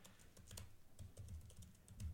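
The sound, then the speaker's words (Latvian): Rapid, uneven clicking of keys on a computer keyboard, fairly quiet, with bursts of keystrokes and brief pauses, no voices present. “Tad, mums, tas nebūs ēterā, tik interesanti, kā es rakstu.”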